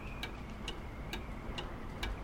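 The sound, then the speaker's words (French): A pendulum clock ticks steadily, five or so evenly spaced, crisp clicks at a slow rhythm, over a soft hiss with no voices. “Il se rappelle de ses rideaux flottants et du pendule qui oscille d'un côté et de l'autre.”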